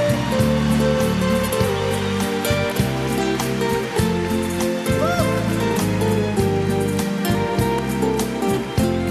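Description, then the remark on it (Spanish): A crowd gives a loud round of applause to Christ, clapping loudly and steadily for several seconds, a dense rush of applause over sustained keyboard chords that shift every second or so. “¿Qué tal si le damos un aplauso bien fuerte a Cristo?”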